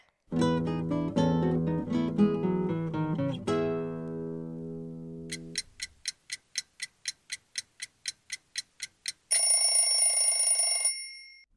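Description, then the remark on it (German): A violin scrapes out a high, squeaky, icy sustained tone near the end, after a run of plucked-string notes and a steady series of sharp ticking pulses. No one speaks. “Es ist nicht das Cembalo, nicht die Gitarre, es ist die Geige.”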